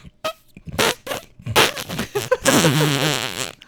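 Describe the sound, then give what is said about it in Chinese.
Someone imitates a fart by blowing against their mouth and arm, producing a string of short sputtering bursts followed by a long, loud, wavering raspberry. “他竟然我们录音间的时候，他就先示范了一下，他是用他的嘴跟他的手臂，就可以做出这样子一个音效。”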